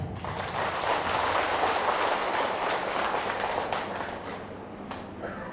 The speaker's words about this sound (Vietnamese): nếu à, các vị phật tử thấy là việc mình là tha thứ cho những người à, xấu ác về dân sự và luật pháp á, để giúp họ trở thành một người mới là điều rộng lượng đáng được làm và có thể làm được thì hãy dâng cho một tràng vỗ tay thật lớn